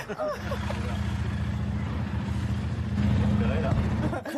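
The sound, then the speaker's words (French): A steady engine rumble from traffic passing along a stretch of road fills the whole clip, heard from the roadside where gendarmes check vehicles for speeding, swelling slightly toward the end, with indistinct voices faintly mixed in. “Bon non, vous êtes sur le bord de la route, vous êtes président, il y a votre sécu, il y a des gendarmes,”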